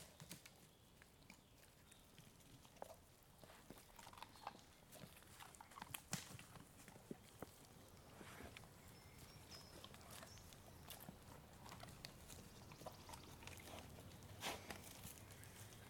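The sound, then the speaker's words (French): Wolves crunching meat and bone with their jaws as several pieces of meat are thrown to the pack at feeding, a steady run of irregular sharp cracks and snaps over a low rustling background with no talking; a wolf's jaw exerts 150 kg of pressure per square centimetre. “On entend que ça craque un petit peu.”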